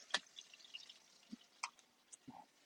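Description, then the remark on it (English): Hot grease pops and crackles in a fryer as potatoes crisp in the basket: a handful of sharp, irregular snaps over a faint, steady sizzle, fairly quiet, with no talking. “Okay, our bacon timer just dinged, but can you hear that? Still hear a little grease flying there.”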